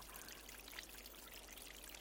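A gentle stream murmurs and trickles steadily, a soft continuous babble of flowing water with faint bright splashes and no voices.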